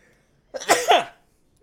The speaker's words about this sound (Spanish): no, pero ayer estás, ahora hoy estás estornudando.